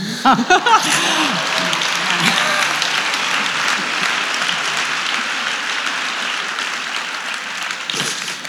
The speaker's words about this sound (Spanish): bueno, sí, aplaudidme, venga.